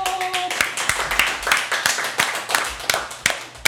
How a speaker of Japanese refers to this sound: 拍手でね大勢来てるっていうのはこれでわかりますよね